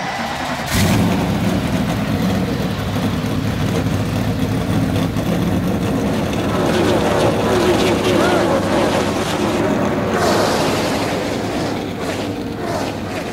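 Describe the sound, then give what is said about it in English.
Many NASCAR stock car engines roar to life at once at the start of a race, then rev and rumble together in a loud, sustained mechanical drone with crowd noise beneath. “an honor to be with all of you at the great American race. Gentlemen, start your engines.”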